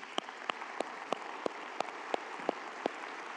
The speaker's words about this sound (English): For those of you in the room, would you please give our online television audience a big hand?